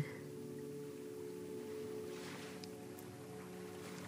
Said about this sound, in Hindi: Imagine that you're walking near a beach. आपको waves की आवाज़ें सुनाई दे रही हैं that every time the water is touching your feet there is a shift in the energy.